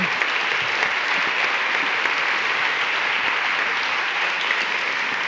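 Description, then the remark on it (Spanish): An audience claps steadily for several seconds, a dense, even wash of many hands with no pauses, fairly loud and sustained throughout, with no voices standing out. “Se merece un aplauso.”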